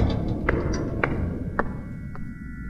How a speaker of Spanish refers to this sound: El sonido de unas pisadas lo interrumpieron. Sonaban como si provinieran de las escaleras, detrás de aquella puerta metálica.